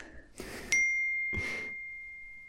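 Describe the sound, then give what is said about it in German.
A single bright email notification ding for an email from KIT rings out with a clean, high tone that lingers and slowly fades, framed by two short breathy rustles of noise and no talking. “Uh, ich habe gerade eine Mail vom KIT bekommen.”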